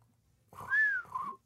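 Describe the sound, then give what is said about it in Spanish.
A person whistles a short, breathy two-part tune that rises and then falls, imitating the lonely tumbleweed sound effect used for awkward silence, with no talking. “Bola de paja. Efecto especial de bola de paja.”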